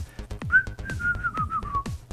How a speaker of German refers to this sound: Ich atmete kurz durch und begann dann ein kleines Liedchen zu pfeifen.